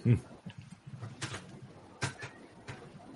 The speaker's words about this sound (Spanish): Escucho pájaros. si los pajaritos se oyen perfecto.